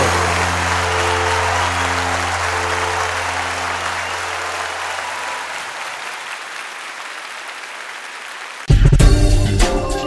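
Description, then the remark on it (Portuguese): Steady applause from a crowd claps on for about eight seconds over a low held musical tone that fades away, then the sound cuts abruptly to louder music. “Agora sou eu que aplaudo vocês.”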